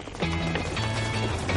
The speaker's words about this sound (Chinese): 四面八方传来一阵阵脚步声，脚步声越来越近。